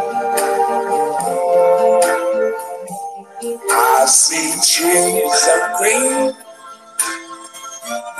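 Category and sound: song played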